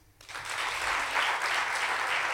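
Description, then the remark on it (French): An audience claps in answer to being asked who among them has already made a parachute jump; after a brief quiet start, many hands clap in a dense, continuous wash that holds at an even level throughout. “Bonsoir, vous m'entendez bien Alors par applaudissement, est-ce qu'il y en a parmi vous qui ont déjà sauté en parachute”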